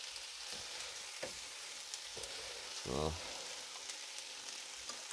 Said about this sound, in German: bis sie mit anbraten. Ja. Hui, da bräuchte ich eigentlich schon fast noch eine viel größere Pfanne.